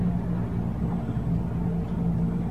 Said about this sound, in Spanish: se me está quedando el auto.